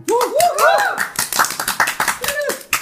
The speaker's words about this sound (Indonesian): Tepuk tangan.